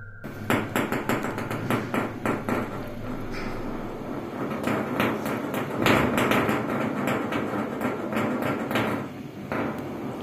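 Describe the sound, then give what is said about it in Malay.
Marbles clatter on a hard floor above a house at 1 a.m.: a steady stream of sharp clicks and knocks at an irregular pace, with occasional heavier thuds over a dull rumble. No one speaks. “Rakaman tu bunyinya macam dia tengah seronok main guli kat atas rumah aku.”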